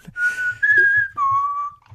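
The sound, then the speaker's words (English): Someone whistles a short melody reminiscent of a spaghetti western theme: three clear, sustained notes gliding between pitches, fairly loud, with soft low thumps pulsing underneath. “Yeah, you know that little uh, that little whistle that you can do, you know, kind of.”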